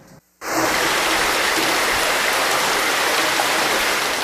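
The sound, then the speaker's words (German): Steady, pleasant splashing of flowing water like a babbling stream, starting after a brief silence and continuing evenly with no voices; a sound recording from a database. “Dieses angenehme Plätschern, was Sie gerade hören, ist leider nur eine Tonaufnahme aus der Datenbank.”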